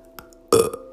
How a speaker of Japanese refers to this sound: ごめんちょっとゲップ出ちゃった